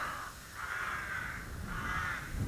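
crows cawing

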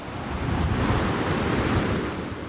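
rushing river water

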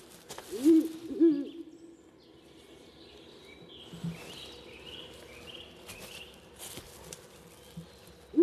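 ural owl hooting

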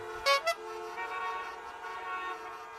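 horn honking

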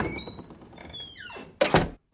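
door thudding shut

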